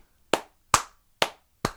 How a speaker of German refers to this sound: Also wenn ich jetzt zum Beispiel so klatschen würde, dann würde... Soll ich mal dazwischen klatschen?